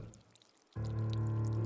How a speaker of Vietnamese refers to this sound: Đó là tiếng vội nước âm ỉ Như ai đó mở van nước từ từ ra Ban đầu nước lợp đợp nhỏ từng giọt rồi sau đó rào rào như nước vỡ